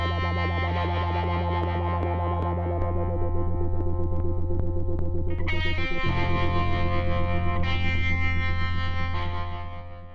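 A short burst of loud electronic music played on the Radio Wave show Špína, with dense distorted synth chords over a steady pulsing low drone, shifting chords midway and fading slightly at the end; no voices.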